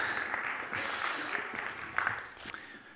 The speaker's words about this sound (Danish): Tusind tak for hjælpen. Vi skal... Ja, en applaus.